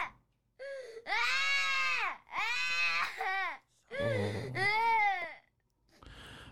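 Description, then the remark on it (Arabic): A child having a night terror, eyes open, unresponsive and in tears, screams and cries in long, piercing, strained wails, four or five loud bursts in quick succession with brief gasping breaks between them, distressed. “صراخ ايوه نوبة الحين, الحين. عدم استجابة العين مفتوحة دموع صراخ”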